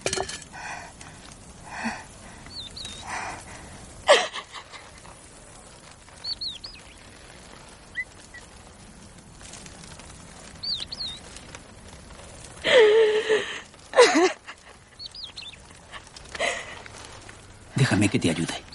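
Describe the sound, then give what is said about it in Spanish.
An exhausted young woman, fallen to her knees beside a lone tree on wild scrubland under a hot sun, sobs inconsolably, with ragged breathy gasps and wavering cries coming in uneven bursts, fairly loud, while faint birdsong chirps in the background. “Al momento, rompe en un llanto desconsolado.”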